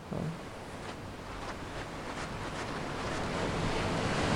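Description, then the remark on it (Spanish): Steady wash of sea waves and surf in a video game, rolling continuously, with a broad hiss of wind and water that swells slightly louder toward the end; no voices. “Y estamos muy cerca del mar otra vez.”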